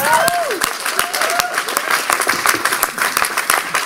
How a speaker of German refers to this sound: Einen riesen Applaus.